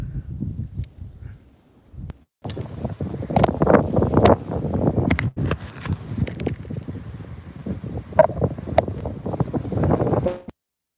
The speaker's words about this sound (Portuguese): É capaz de ter algum barulho de vento a partir de agora, tá?